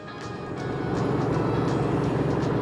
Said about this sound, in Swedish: tog en åktur i en Buick Touring från 1923